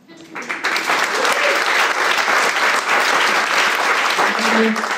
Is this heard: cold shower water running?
no